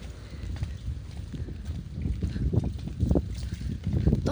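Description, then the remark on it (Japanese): Heavy rain falling outdoors, a steady washing hiss mixed with low, rumbling wind buffeting that swells and fades in uneven gusts, with no one talking. “やばい雨だからって外に出てきたけど話すことがない”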